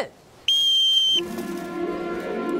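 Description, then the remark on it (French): A single loud, sharp whistle blast signalling the start, held steady for under a second, cutting off abruptly before a voice starts talking. “Au coup de sifflet, 3, 2.”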